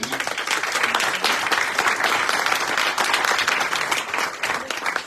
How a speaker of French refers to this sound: mais très sincèrement, je voudrais vous demander un peu applaudissement pour Madame Simon